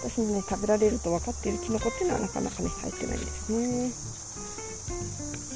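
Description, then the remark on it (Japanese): A steady, high-pitched buzz of insects or cicadas hums continuously in the background on a riverbank path off the road in Hokkaido, Japan, at the end of summer, while a person talks in the foreground. “今ねちょっと道路から外れてだいぶね、あのー、川岸の方へやってきました虫のね耳にセミの声が虫なのかなセミなのかな声がねよく聞こえて”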